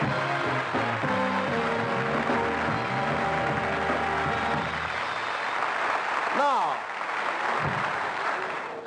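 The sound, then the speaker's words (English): A studio audience applauds in a dense, steady wash of clapping that lasts the whole time, with tonal music over the first half and a brief falling swoop near the end. “Usually I applause is still going while, while I do this.”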